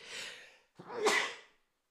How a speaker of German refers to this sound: Sorry, ich musste niesen.